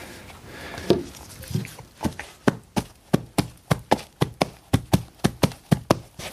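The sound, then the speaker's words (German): Coconut shells filled with silicone mimic a smaller horse's hoofbeats in a small one-man studio, starting with a few uneven knocks and then settling into a steady trotting rhythm of sharp wooden taps. “Das wäre das eine Pferd, etwas kleineres Pferd.”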